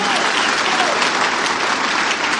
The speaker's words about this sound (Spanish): ¿Quiénes de los que están aquí son nuevos o están aquí por primera vez? ¿Se podrían poner de pie, por favor? Y un fuerte aplauso para todos ellos. Un fuerte aplauso.